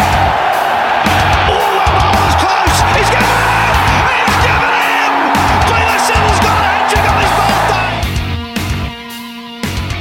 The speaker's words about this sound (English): Chris Lynn has taken the wild thing and sent it possibly over the roof. Look at the look on his face. Crowd cheers.